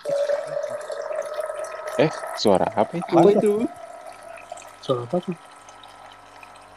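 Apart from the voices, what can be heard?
water being poured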